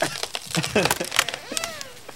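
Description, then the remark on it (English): A tree branch snaps and falls off with a quick run of sharp, woody cracks and splintering pops, fairly loud, followed by a short creaking groan as it gives way. “A little snap? Yeah, another branch fell off.”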